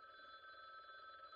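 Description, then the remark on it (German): A steady electronic ringing tone, like a telephone bell, sustains continuously at an even level throughout, fairly quiet with no talking over it. “Ich dachte, das ist ein Telefon.”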